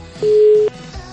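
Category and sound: signal or alarm, telephone busy tone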